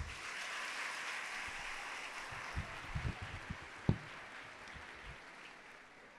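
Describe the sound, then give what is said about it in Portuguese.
An audience applauds one another for several seconds, a steady wash of many hands clapping with a few sharper, louder claps standing out midway before the sound gradually thins. No one speaks. “Aplauda esse seu irmão.”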